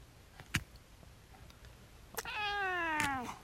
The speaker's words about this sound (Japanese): 猫の鳴き声。